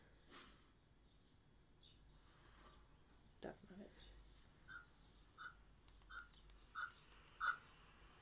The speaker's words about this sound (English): What sound does a pelican make? Because I was about to go caw caw caw, but I was like, that's not a pelican sound. Pelican. It's barely a seagull. Pelican sound. Let's find out.